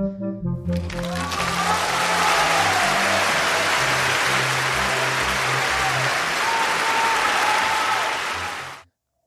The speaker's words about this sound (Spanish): Así que la primera temporada llega a su fin y se renovará este podcast porque así lo pidieron ustedes, chavos. Esto va por ustedes, felicidades. Un aplauso, por favor.